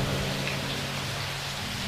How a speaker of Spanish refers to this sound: Las gotas pesadas comenzaron a caer. Una lluvia serena fue testigo de nuestro hermoso espectáculo